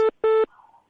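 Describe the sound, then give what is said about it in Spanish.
Two loud electronic telephone tones on a phone line: a short beep followed quickly by a longer one, both harsh, then a faint fading hum. No one speaks. “Bien, no sabía si era el claxon de un coche o era el sonido realmente del, teléfono”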